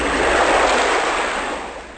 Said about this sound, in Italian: Eh, non si può mettere l'effetto sulla voce, ma abbiamo l'effetto speciale onde.